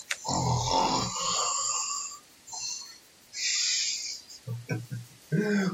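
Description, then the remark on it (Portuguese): A voice imitates the deep snoring of a woman asleep late at night in a camp, propped against a wall with her arms crossed: a long, rasping inhale-snore, a breathy exhale, then a few short snorting grunts, all loud and without other talk. “Roncando profundamente.”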